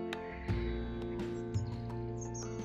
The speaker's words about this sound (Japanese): ドイツはもうすぐ夏至でこの北ドイツハンブルクはまだね青空ですね空は。カラスの鳴き声がしています